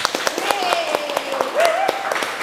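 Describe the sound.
Audience applause: a steady patter of sharp, irregular hand claps at moderate loudness, with a voice or cheer running through the middle.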